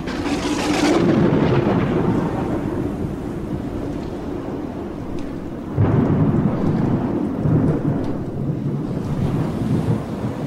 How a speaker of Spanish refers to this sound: tormenta se ha reanudado intensamente.